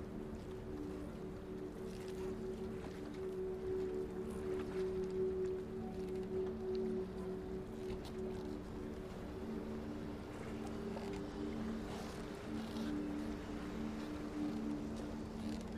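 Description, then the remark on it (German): Steady harbor ambience with a low, droning boat engine hum and a wash of water noise, continuous and fairly even throughout, with no voices. “Deine Reise startet an einem Hafen.”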